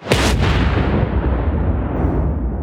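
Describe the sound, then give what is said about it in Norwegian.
A sudden, heavy crash breaks into a deep, sustained rumbling roar that stays loud and dense across the whole stretch as the ground shakes and the earth is turned upside down outside, with no voices. “Idet samene utånder, høres det bulder og brak, og bakken rister og jorden vendes opp ned utenfor”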